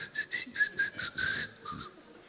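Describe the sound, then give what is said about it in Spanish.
Half a dozen quick, airy sucking draws through lips pursed as if to whistle, as a person aspirates wine after a first tasting, each with a thin whistle-like edge, in a fast, uneven rhythm, fairly quiet, with no talking. “Aspira el vino después de tu primera degustación. Sí. Con los labios fruncidos, como si fueras a silbar.”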